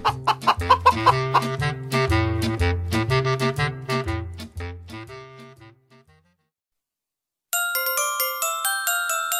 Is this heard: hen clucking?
yes